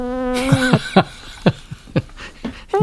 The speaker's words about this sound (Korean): 무슨 소리 같아요? 네. 방구소리입니다. 일부에 나가는 노래 가운데 이 소리가 섞여 있는 노래가 있을 겁니다.